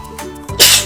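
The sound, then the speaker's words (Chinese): A single sneeze: a brief breathy intake followed by a sudden, loud, hissing burst that trails off quickly, with no talking around it. “哦，打喷嚏了。”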